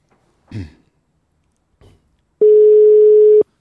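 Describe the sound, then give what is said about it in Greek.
A loud, steady telephone line tone sounds once for about a second, flat and unbroken, preceded by a couple of brief soft knocks, while waiting for a caller to pick up the phone. No one speaks. “Περιμένουμε μόνο να το σηκώσει.”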